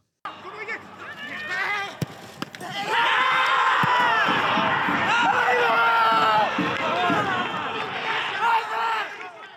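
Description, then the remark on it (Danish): A football stadium crowd murmurs, then bursts into a loud, sustained roar of cheering and shouting after a sharp thud as Robert Mudrazija scores his first goal for FCK, many voices swelling before easing slightly at the end; filmed behind the goal by an FCK TV photographer. “optaget nede bag målet af en af FCK TV's fotografer, som var i Jødeborg øh, i går.”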